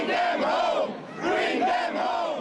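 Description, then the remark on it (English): A large crowd of hundreds of pro-Palestinian protesters chants "Free, free Palestine" in unison in loud, rhythmic bursts, many voices rising and falling together, facing off against pro-Israel protesters in Washington Square Park on a Tuesday night. “Hundreds of pro Palestinian protesters faced off against pro Israel protesters in Washington Square Park Tuesday night. It was loud and heated.”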